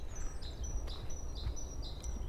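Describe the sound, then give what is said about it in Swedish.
A small bird chirps outdoors, repeating thin, high whistled notes in a steady pattern, fairly faint and somewhat distant over a low rumble of wind. “Hör man det? Att det är fågelkvitter.”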